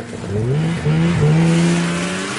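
A snowmobile engine revs, its whine climbing in pitch, dipping briefly, then surging again into a steady, droning roar with no voices. The snowmobile is being ridden down a tree-lined trail at Los Glaciares, Montana.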